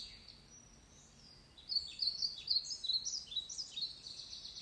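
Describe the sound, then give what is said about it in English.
Birds sing in a forest, a rapid string of high chirps and trills starting after a quiet moment and continuing steadily over a soft background hush. “Listen to the birds singing.”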